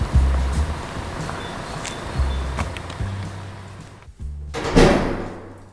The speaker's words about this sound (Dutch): Hier, aan deze kant, zie je? Deze deur. Kom maar, gaan we naar binnen.